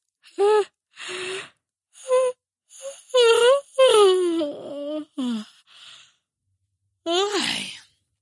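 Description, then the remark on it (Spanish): A voice performs a drawn-out, exaggerated yawn for the tired character Pipín in a story reading, broken into a series of moaning, sighing vocal bursts with wavering pitch, fairly loud, ending on one last stretched groan. “Pipín bostezó.”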